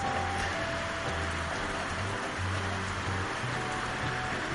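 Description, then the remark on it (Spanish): Steady storm rain patters and hisses without pause on window sills, a dense wash of drops with a low rumbling undertone and no voices, on Monday 27 April 2020. “Cómo arrecia la tormenta en este lunes 27 de abril de 2020.”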